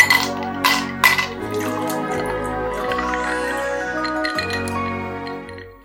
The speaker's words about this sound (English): I will get it out and uh, whip the top off the bottle.